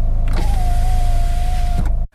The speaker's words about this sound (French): Alors, je vais refermer la fenêtre c'est pas des effets spéciaux.